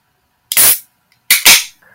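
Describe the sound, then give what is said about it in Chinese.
A shaken large beer bottle popping open: two loud, sharp bursts about a second apart, each trailing off into a brief hiss of escaping gas, with a faint fizz at the end and no talking. “那我要开喽，慢慢喝，我要开了。”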